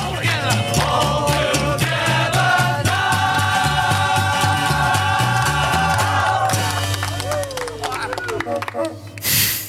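A song plays with steady bass and sustained tones, then near its end brief honking toots of a novelty horn, like those used by a performer, sound over the music before it cuts off abruptly.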